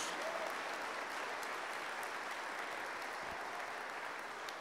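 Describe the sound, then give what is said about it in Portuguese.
An audience applauds steadily, a dense, continuous wash of many hands clapping at an even loudness for the whole stretch, with no voices standing out. “Se você crê nisso, dá um aplauso bem forte a Ele.”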